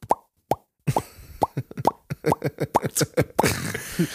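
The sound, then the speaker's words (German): A voice beatboxes kick-drum thumps, two spaced booms and then a fast, driving run of punchy low hits mixed with breathy clicks and hisses, fairly loud. “Ey, wenn die Kick draußen kommt und alle dancen übelst ab und alles, was du hörst, ist”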